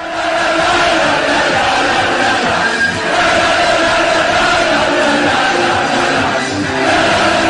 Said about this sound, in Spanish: Harry está on fire. Cantan los ingleses. Escuchen. Este es en el FanFest de anoche.